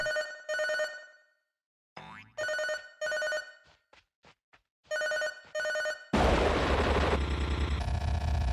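An electronic telephone ring in a video game sounds in loud double bursts, separated by short pauses and a few faint clicks, then gives way to a sudden harsh, roaring burst of noise.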